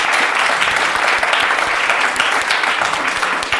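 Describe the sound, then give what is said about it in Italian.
Loud, sustained applause from a crowd, dense rapid clapping that fills the whole stretch at an even level with no voices standing out. “un applausometro Veronica.”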